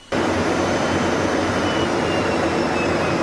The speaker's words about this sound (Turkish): Pompeo'nun sözlerinden kısa süre sonra Milli Savunma Bakanlığı Kuzey Kıbrıs Türk Cumhuriyeti'nde süren Akdeniz fırtınası tatbikatından görüntü paylaştı. F-16'lar ada üzerinde gövde gösterisi yaptı.